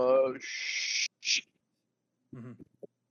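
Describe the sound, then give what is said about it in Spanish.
A voice imitates a crash cymbal roll: a short vocal sound leads into a sustained hissing wash, then a brief second hiss, and a moment of talking follows after a pause. “No es cierto, un roll, un roll de Crash que es como...”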